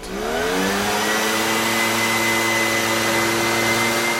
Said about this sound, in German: Ein Kindheitstraum wird wahr. Für einen Tag darf ich mit dem Laubbläser unterwegs sein und Laub wegpusten wie die Profis unter fachkundiger Aufsicht.